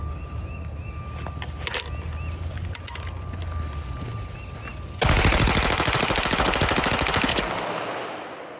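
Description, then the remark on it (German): A rapid volley of semi-automatic rifle fire aimed at packs of Bud Light beer erupts after a few seconds of quiet outdoor ambience. It is loud, with shots cracking in fast succession for about two and a half seconds before stopping. “Wir haben da gehört, wie er ein halbautomatisches Gewehr packt und dann eine Salve abführt auf Bud Light-Packungen.”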